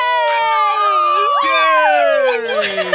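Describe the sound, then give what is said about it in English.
A loud, canned burst of crowd cheering from a hype button: many high voices whooping and shouting together in a dense, continuous roar that holds steady for about three seconds, like a sound-effect button. “She's actually out of town, and I just have a hype button.”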